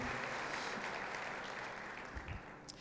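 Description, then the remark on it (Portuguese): An audience at a morning church service applauds the Lord Jesus, a dense wash of many hands clapping at an even, sustained level that eases slightly toward the end, with no speech over it. “Você pode aplaudir o Senhor Jesus mais uma vez?”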